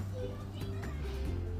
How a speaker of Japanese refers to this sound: 今日日曜日ですのでね子供の声が後ろで聞こえますが